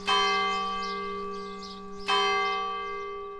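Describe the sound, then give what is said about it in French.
A church bell strikes twice at night, about two seconds apart, each loud, resonant toll humming on with rich overtones that fade slowly. No voices accompany it. “Quand j'avais acheté la maison et quand j'ai dormi la première nuit, à ma surprise, j'entendais les cloches la nuit.”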